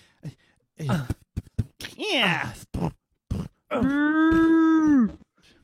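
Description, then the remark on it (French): A voice imitates the sounds of mole-cows, creatures both mole and cow that live underground, being fed in a cellar: a few short grunts and rising squeals, then one long, sustained low moo that swells and fades, fairly loud with no speech. “ah vous avez vu mes taupes vaches mm. Ce sont des taupes vaches. C'est à la fois des taupes et des vaches.”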